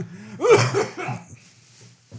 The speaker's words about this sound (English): …'s coughing up a lung and honking some loogies